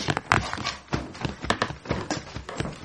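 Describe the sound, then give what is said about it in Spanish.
Quick, hard footstep sound effect: a steady run of sharp clacking steps, about three per second, moderately loud with no voices over them. “Y otra vez pasitos o puerta.”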